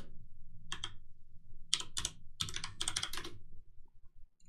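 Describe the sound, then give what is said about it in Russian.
Typing on a Das Keyboard mechanical keyboard, with bursts of crisp, clacky keystrokes in uneven clusters over a low background hum, then a brief pause. “Итак, у меня э, механика клава, надо книгу писать, да? Нихуя она звучит дорого?”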